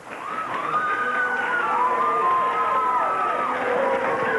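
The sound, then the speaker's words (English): A crowd of wrestling fans cheers and claps in a steady, loud roar, with rising and falling shouts carrying above the dense wash of applause throughout. “Now, you know, all of the fans clapped and everybody cheered, and they're starting to do it again, but...”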